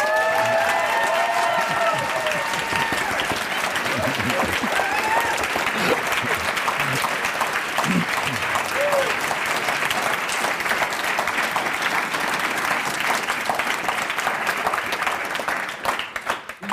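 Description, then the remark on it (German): A live audience at To the Sky at TU Wien, Vienna, applauds steadily at a live show for a 50th edition, a dense wash of clapping hands that stays loud throughout, with a few faint whoops and cheers rising above it before it begins to fade at the end. “Ausgabe, die jetzt schon eine Zeit lang vorbei ist und zwar live vor fantastischem Publikum aus dem To the Sky an der TU Wien. Schönen guten Abend.”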